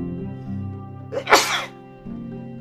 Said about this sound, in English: oh, excuse me, guys. Um, I'm one of those guys that just doesn't sneeze once. I, I might be sneezing throughout this whole show. I don't know. I apologize. Um, uh, just little sneeze there.